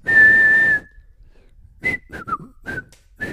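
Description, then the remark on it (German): A person whistles a short tune: one long sustained note, a pause, then several quick separate notes rising and falling, clear with no talking. “wie das Lied heißt, was der … gerade gepfiffen hat”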